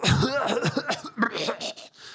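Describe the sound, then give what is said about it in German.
A person imitates a woman's sudden coughing fit with a rapid run of harsh, voiced coughs and bursts, slightly laugh-like, ending in a short breathy gasp. “plötzlich muss sie voll husten so.”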